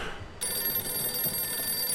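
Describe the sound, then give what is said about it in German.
An old-style telephone bell starts ringing abruptly after a brief moment of quiet, a loud, continuous metallic jangle that carries on steadily to the end, with no voices. “Das Lo ist das Telefon.”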